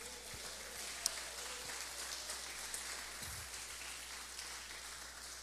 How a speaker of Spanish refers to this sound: ¿Cuántos dan una ofrenda de palmas al rey en esta mañana?